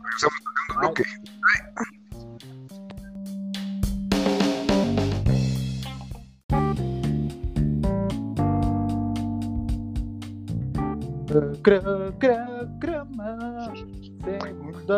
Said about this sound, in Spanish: Sí, lo sentimos mucho, queridos como escuchas, no siempre tenemos los mejores jingles, pero las ganas y el esfuerzo se hace. Me pareció uno de los mejores jingles que hemos tenido.